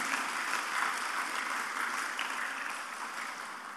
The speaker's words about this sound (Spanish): Dele un aplauso al Señor, por favor, en esta tarde.